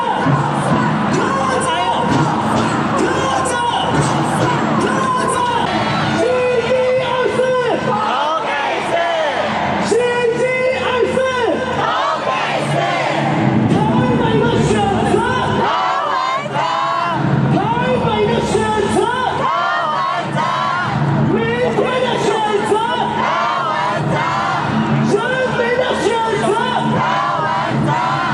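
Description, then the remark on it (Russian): At a Taiwanese election rally, a large crowd chants and cheers loudly in unison in support of candidate Ko Wen-je, chanting that Taipei and the people choose him, voices rising in rhythmic shouted bursts that continue steadily throughout, dense with a constant roar of many people. “Так тайваньцы кричат в поддержку своего кандидата КВНЖ и говорят, кого выбирает Тайбэй КВНЖ, кого выбираем завтра КВНЖ, кого выбирает народ КВНЖ.”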